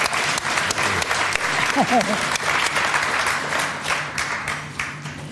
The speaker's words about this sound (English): Big round of applause.